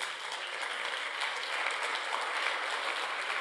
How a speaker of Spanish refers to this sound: Amén. Un aplauso a Dios.